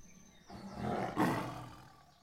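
A tiger lets out a single deep, rumbling roar that swells and peaks midway before trailing off, loud with no speech over it.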